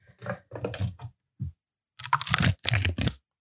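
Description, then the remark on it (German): A drink, the drink of the week, being opened live: a quick run of crunchy, crinkling bursts and sharp clicks, a short pause, then a louder cluster of crackling noises, with no talking over it. “Ich habe, ich würde das hier live öffnen.”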